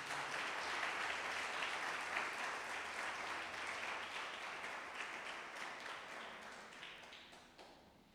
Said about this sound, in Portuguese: Quem crê nisso, dá uma salva de palmas ao Senhor.